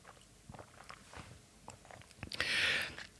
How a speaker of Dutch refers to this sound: En ik neem nu toevallig ook een slokje.